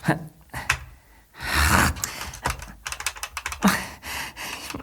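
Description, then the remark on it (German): The last five numbers of a code being dialed on a wall telephone: a run of short, crisp button clicks in an uneven rhythm, broken midway by a breathy rush of noise, with no talking. “Ja, dann, dann, dann, dann probier es mit dem Telefon an der Wand dort.”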